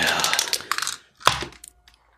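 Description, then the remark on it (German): A die is rolled, clattering and rattling for about a second, a quick flurry of bright hard clicks, then a sharp knock and a few small settling taps before it goes quiet. “dann lasse ich mal den Würfel sprechen. Als erstes würfel ich für Jens.”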